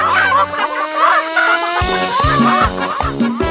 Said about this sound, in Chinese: 呜，我好像听到了母鸡的声音。你看到母鸡了吗？Where？就在我们后面。Dora 是母鸡，它们来追我们了，快跑！